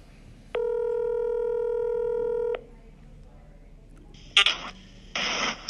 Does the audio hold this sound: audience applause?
no